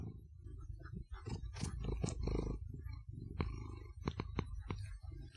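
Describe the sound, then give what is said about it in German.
A male cat that has jumped onto the speaker's lap at the microphone, a low continuous rumble like purring mixed with soft bumps, rustles and sharp clicks as it brushes against the mic. No one speaks. “Ich er gerade mit dem Mikrofon, ihr habt es vielleicht gehört.”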